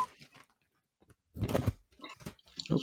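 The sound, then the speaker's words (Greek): Someone chews food: a few soft bites, a short pause, then louder, crunchy, irregular munching bursts. “Μασουλάρις.”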